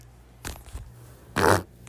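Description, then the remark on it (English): Two short, raspy fart noises: a softer sputter first, then a louder, buzzier blast about a second later. No one talks during them. “you got to fart fart dude”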